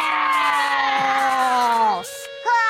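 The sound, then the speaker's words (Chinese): A group of children shout a loud, sustained, high-pitched "roar" together for about two seconds, imitating a fierce tiger and stretching out their claws like a tiger, then a brief dip and another short shouted burst at the end. “那我们现在可以学老虎伸出爪子，一起来发出凶猛的声音吗？”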